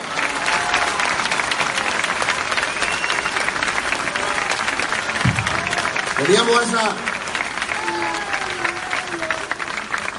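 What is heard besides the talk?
audience applause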